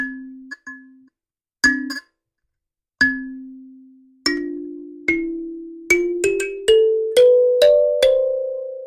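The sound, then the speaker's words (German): A melody plucked on the lamellae of a lamella instrument such as a kalimba, starting from the lowest note, C, then plucking lamellae beside the middle one to get successively higher notes: bright, ringing metallic notes that step upward in pitch, slow and separate at first, then quicker and overlapping, each one decaying gently. “Und jetzt muss ich auf der rechten Seite neben der mittleren den, äh, die Lamelle zupfen um den nächst höheren Ton zu kriegen.”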